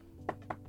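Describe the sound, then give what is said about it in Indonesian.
Two quick taps imitate knocking on a door heard at night while someone was asleep, evenly spaced with a fainter third tap trailing after, over a quiet background with no talking. “gue lagi tidur kayak ngimpi ada suara ketok terus gue kebangun”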